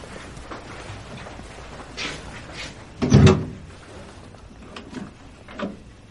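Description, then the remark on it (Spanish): A bedroom door opens with a single low, hollow thump and brief creak around the middle, surrounded by faint rustling and soft handling sounds; no one speaks. “Daniel abre la puerta de su habitación extrañado.”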